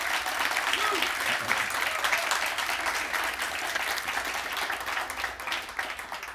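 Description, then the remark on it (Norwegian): Sustained applause from an audience welcoming and congratulating a debut novelist, a dense steady patter of many hands clapping at even loudness throughout, with no one speaking over it. “Gi ja, en applaus.”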